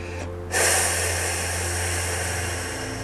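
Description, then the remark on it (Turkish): A deep, airy breath released in one long, steady exhale during a guided relaxation, a big breath let out to release tension from the throat, starting abruptly and slowly fading over a few seconds, with no talking. “Ve bu güzel his boğazına doğru gelirken boğazında söylemek isteyip de söyleyemediğin ne varsa hepsini bırak gitsin kocaman büyük bir nefesle”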